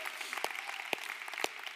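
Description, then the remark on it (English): An audience claps, giving God a hand clap over the more than 350 churches planted in America by the Association of Related Churches: a steady wash of many hands with a few sharper, louder claps standing out every half second or so. The applause is moderate in level and contains no voices. “Come on, let's give God a hand clap for that.”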